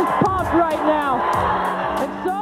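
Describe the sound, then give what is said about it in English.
A crowd at a Columbus Quest game in the ABL women's professional basketball league roars and cheers continuously, with many overlapping shouts, whoops and yells rising over a dense, loud wash of noise, sharp vocal bursts popping out every half second or so. “she is pumped right now. And so is this crowd.”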